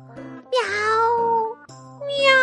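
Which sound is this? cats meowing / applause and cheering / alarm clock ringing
cats meowing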